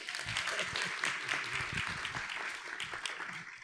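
An audience claps steadily for a few seconds for a man as he comes up, a dense wash of many overlapping hand claps that holds at an even, moderate level throughout.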